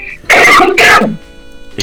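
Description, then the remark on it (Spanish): Two loud, harsh coughs in quick succession from a person recovering from the flu, with a throaty rasp; no talking, just a brief quiet pause afterward. “No te preocupes, sé que está saliendo una tos, una tos fuerte.”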